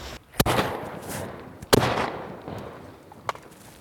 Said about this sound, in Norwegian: Hva skøyt du? Skøyt du? Ei siland er truffet.